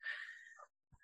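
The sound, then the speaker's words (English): A pet dog barks faintly as a trash pickup truck drives by, one drawn-out bark followed after a short pause by the start of another, with no one talking. “sorry my dog is barking i don't know if that's something that you can hear or you want right.”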